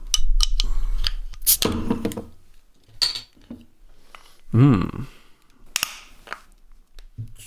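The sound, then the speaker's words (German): Sharp metallic clicks and scraping as a beer bottle is pried open with a lighter, with a few clinks of glass and a brief murmur from a voice. “Ich würde sagen, dann machen wir doch die Flasche halt gleich mal auf.”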